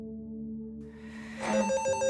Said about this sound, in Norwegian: Det var jo en ganske stressende situasjon, fordi telefonene ringte hele tiden, og det var en voldsom summing eh, hele tiden.